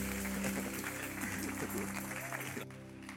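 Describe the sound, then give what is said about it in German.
Steady applause from an audience welcoming a speaker onto the stage, a dense continuous patter of many hands clapping for about two and a half seconds before tapering off, with faint tonal sounds and murmurs beneath. “Geben wir ihm ganz herzlichen Applaus auf der Bühne.”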